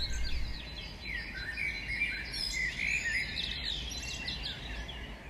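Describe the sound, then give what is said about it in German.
Birds sing and chirp continuously with quick, bright warbling phrases, fairly soft, layered over a steady low outdoor rumble, with no voices present. “Manchmal singt ein Vogel oder du entdeckst ein erstes Schneeglöckchen.”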